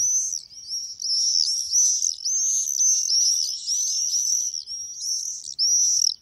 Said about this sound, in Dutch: Om te luisteren naar zijn verhaal achter het geluid van de Gierswaluw.